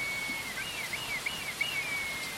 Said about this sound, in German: dann kann man also auch den Ruf vom Roten Milan hören. Das ist also dieses laute,